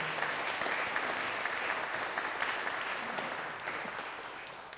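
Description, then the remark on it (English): Steady audience applause at a service, a round of applause that fills the whole stretch, a dense wash of many hands clapping at an even level, tapering slightly toward the end with no voices over it. “So, can you please give these guys a round of applause?”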